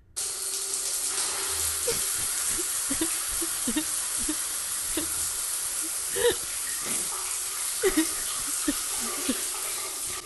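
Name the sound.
shower water running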